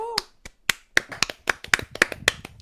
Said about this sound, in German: Kann man klatschen.